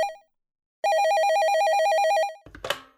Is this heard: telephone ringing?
yes